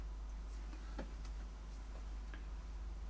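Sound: clock ticking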